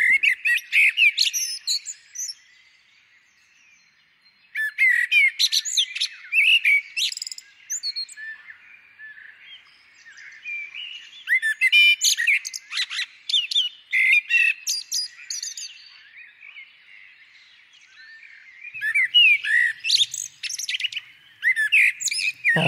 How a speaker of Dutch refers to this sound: we gaan nu eerst nog even luisteren naar het geluid van de merel. En eh, luister dan ook vooral in je tuin of je zelf de merel herkent.